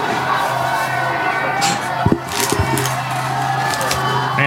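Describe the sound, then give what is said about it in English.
A sharp wooden crack of a baseball bat splintering on contact as a batter hits a home run into the upper deck, with a second smaller snap just after, over a steady roar of crowd noise that swells into cheering. “Busted bat home run, like Didn't even look like it should have been a home Yeah.”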